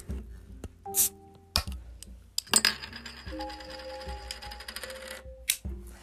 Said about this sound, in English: So, going forward to set the mood and give myself a little something to keep my beak wet, I'll be cracking open a cold one to keep me company on this spooky ride. So, I'm going to go ahead and crack open what I'll be drinking this week.